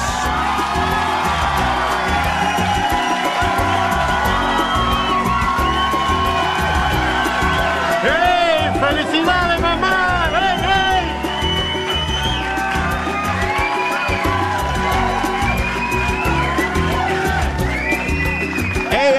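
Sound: audience applause and cheering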